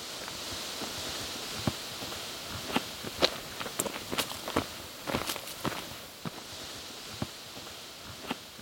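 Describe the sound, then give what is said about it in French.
Footsteps crunch along a forest trail near the start of the Mont Didier trail, between a house and a garage, at an unhurried, irregular pace, each step a sharp crackle over a steady hiss of rustling outdoor ambience, with no voices. “on part tranquillement dans la magnifique érablière qui est juste à côté de la maison”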